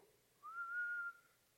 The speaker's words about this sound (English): But then when I walk through the door, and I just whistle,